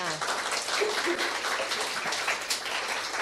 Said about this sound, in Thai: อาปรบมือหน่อยค่ะ